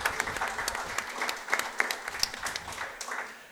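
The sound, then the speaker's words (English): A crowd claps steadily for a few seconds in a round of applause for the athletic director, a dense patter of many hands with sharp individual claps popping out, fairly even in loudness throughout with no voices. “Round of applause for our athletic director.”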